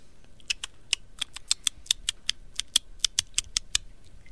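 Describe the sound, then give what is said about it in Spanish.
Quick, crisp clicks of someone typing a text message on a phone, about twenty sharp taps in an uneven, hurried rhythm with tiny pauses, bright and fairly quiet, with no voices. “¿Eso qué es? Está escribiendo un mensaje de texto.”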